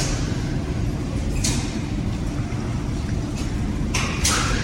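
inside a moving train

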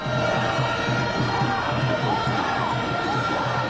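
crowd of protesters shouting

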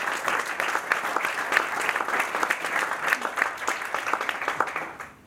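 applause

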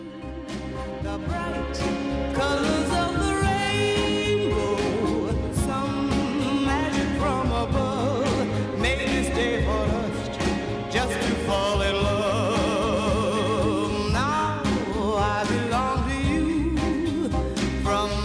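song playing

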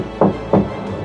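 knocking on a door

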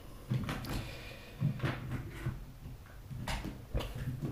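drawer opened

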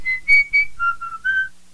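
whistling

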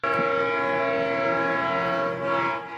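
train horn sound effect

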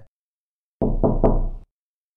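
knocking on a door

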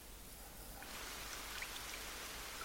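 waterfall rushing water

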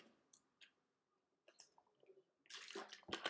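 speaker drinking water

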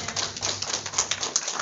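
audience hand clapping

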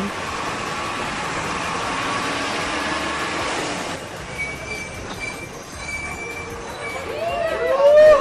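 bus arriving

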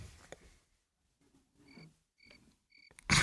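cricket chirping

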